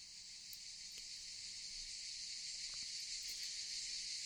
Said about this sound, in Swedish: Nästa dag vid middagstid, då solen stod som högst på himlen och skogen ekade av cikadornas skrik.